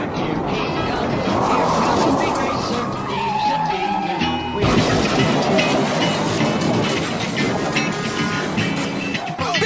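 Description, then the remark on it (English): Loud, continuous roar of race cars with a brief squealing skid, then a sudden jolt of crashing noise midway as rookie Suarez's car goes up and over Regan Smith's in a big crash, followed by more dense engine and impact clatter, with a voice faintly underneath. “That's the rookie Suarez up and over Regan Smith. The big one”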